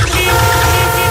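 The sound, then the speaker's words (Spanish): Loud, sustained car horns blare together without pause, a steady, brassy honking chorus of traffic noise, honking at a motorbike whose engine has seized in the middle of the roadway. “Cuando se te gripa la moto en mitad de la calzada, suena así”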